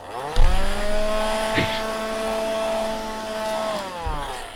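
A vacuum cleaner whirs steadily with a strong humming motor tone, starting up with a bump and running continuously for a few seconds, with faint clunks from use, as a mess is cleaned up.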